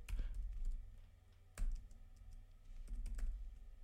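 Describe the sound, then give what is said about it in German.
Keys clatter on a computer keyboard in irregular bursts as someone types a search into Google, a few sharper clicks standing out, with a low steady hum underneath and no voices. “man gibt dir bei Google ein, kein Rocky Result.”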